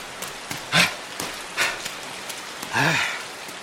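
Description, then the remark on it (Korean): Steady rain hisses throughout at moderate volume, broken by a few brief voiced bursts that rise and fall in pitch, like short cries or calls over the downpour. “나 비 쫄딱 맞으면서 밤새 기다릴 기가.”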